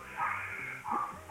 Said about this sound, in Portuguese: Tem um cachorro latindo aqui, né?